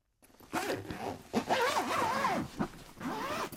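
A zipper on a padded balalaika bag is pulled open in three quick, raspy strokes, with brief pauses between them and no voices.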